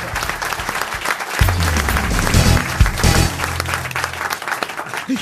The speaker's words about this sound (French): Bon, bref, en tout cas, il n'est pas là, j'en fiche, j'enseigne, mais on peut quand même les applaudir tous d'un coup, mes grosses têtes.